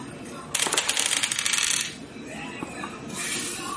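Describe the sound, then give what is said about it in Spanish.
Two dice clatter and tumble across a hard tabletop in a quick, rattling burst lasting just over a second, fairly loud, then settle into a quiet hiss. “Disparando pues entonces él va a tirar con dos dados de penalización.”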